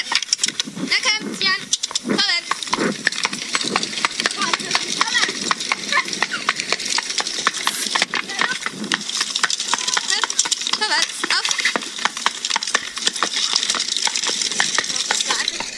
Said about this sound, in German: Meine Freundin hatte zwei Striegel, die sie immer so ein bisschen zusammengeklopft hat. Das war dann später im Stall.